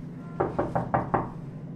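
Five quick knocks on the door of a modest cabin aboard a ship at sea, in a slightly uneven rhythm and fairly loud, over a steady low background hum.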